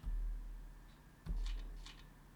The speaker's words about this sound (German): Das ist das Geräusch von, von, ähm, ja, von Seiten, die umgeblättert werden.